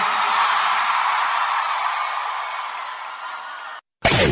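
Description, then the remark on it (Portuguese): A large live crowd in Salvador, Brazil, roars, whooping and shouting together in a sustained, loud wash of cheering that tapers slightly before cutting off abruptly, followed by a brief burst of new sound. “Quem gostou, joga a mão e dá um grito, Salvador.”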